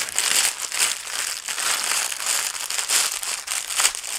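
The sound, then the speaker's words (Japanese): A small plastic garbage bag is crumpled and handled, a continuous bright, crinkly rustling with irregular louder crackles throughout and no talking. “あれこれ思ったより小さいゴミ袋だったこれじゃないじゃんこっちか”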